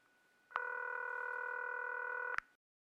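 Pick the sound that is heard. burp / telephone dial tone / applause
telephone dial tone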